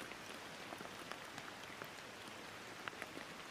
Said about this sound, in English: Sink back into the present moment by noticing the flow of your breath in and out and listen to the rainfall around you.